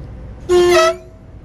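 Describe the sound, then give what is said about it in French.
A railcar horn gives one short, loud blast of about half a second as the train starts its departure, a bright, steady tone over a low mechanical rumble, with no one speaking. “Un klaxon pour le démarrage.”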